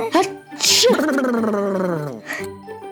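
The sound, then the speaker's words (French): A voice performs a comical, exaggerated queen's sneeze, one of a gadget's silly-noise settings: a sharp hissing burst, then a long wavering moan sliding downward, ending with a softer breathy puff. Loud. “J'ai ajouté une petite fonction bruit farfelu, au choix. Éternuement de reine.”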